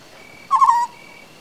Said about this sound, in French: La nuit, quand je suis là, j'entends un hibou petit-duc euh, qui répond à un autre.